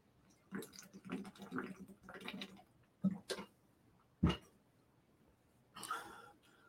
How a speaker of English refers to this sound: Speaking of water, it's time for me to grab a sip of water or or chug some water.